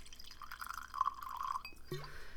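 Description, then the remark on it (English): Ketel One vodka pours into a glass in one short, steady gurgling stream lasting about a second, followed by a faint glassy clink. No one speaks. “So I'm not a drinker, but I'm gonna have a little help from uh, Ketel One. So give me a second.”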